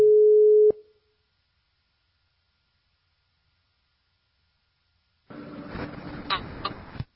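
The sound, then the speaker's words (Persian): A single steady telephone line tone beeps loudly for under a second as a call is dialed, followed by a long silence, then a burst of crackly, rustling line noise near the end. “بذار من تلفن بزنم بینم چی میگی چی میگی”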